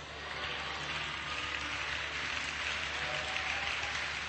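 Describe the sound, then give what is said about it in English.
A crowd claps steadily for the whole stretch, a dense, even wash of many hands at constant loudness, with no voices standing out above it. “Come on, the, the harder you clap, the closer your breakthrough.”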